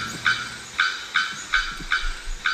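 A bearded bellbird at the Asa Wright Nature Centre in Trinidad and Tobago repeats loud, sharp, clanging bock notes, six in quick succession at a steady pace, ringing clearly with no voices.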